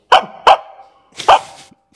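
A dog barks three times, loud: two quick barks in succession, a short pause, then a third, slightly longer bark. No voices accompany them.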